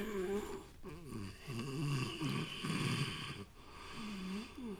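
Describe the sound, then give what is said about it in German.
Seppel, asleep in his bed at night under a nearly full moon, snores: a steady series of rough, rumbling breaths with wavering, voiced pitch that rise and fall continuously, with no talking. “Aber Seppel ist schon eingeschlafen und träumt von Pflaumenkuchen mit Schlagsahne.”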